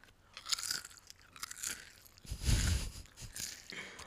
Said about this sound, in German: Heute snacken nicht nur die Katzen, sondern auch wir.